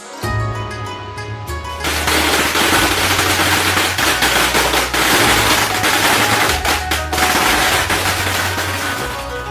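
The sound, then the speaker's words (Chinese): A long string of firecrackers set off for Lunar New Year crackles nonstop, a dense, loud barrage of sharp pops that begins after a brief quieter start and keeps rattling with a low rumbling tone underneath. “鞭炮噼里啪啦响个不停，吵着我睡不着。”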